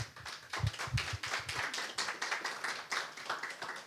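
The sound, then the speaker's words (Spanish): An audience breaks into steady applause, many hands clapping in a dense, continuous patter that holds at an even level for several seconds with no voices over it. “Un fuerte aplauso y vamos a orar.”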